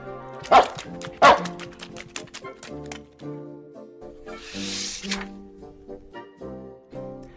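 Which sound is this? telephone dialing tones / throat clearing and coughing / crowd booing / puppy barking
puppy barking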